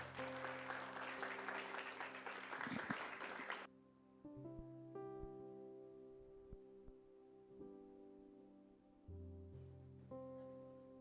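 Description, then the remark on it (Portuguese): A church audience claps loudly and steadily for a few seconds over sustained keyboard chords, applauding the Lord, then the applause stops abruptly and the soft organ-like music carries on alone. “Você pode aplaudir ao Senhor?”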